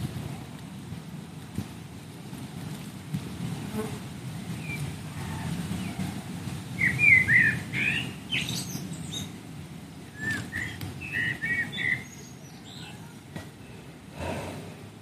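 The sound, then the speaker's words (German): Birds chirp in short scattered bursts, clustering in the middle and latter part, fairly soft over a steady low rumble of wind or water noise; no one speaks. “Ich glaube, die Vögel, die Vögel unterhalten genug.”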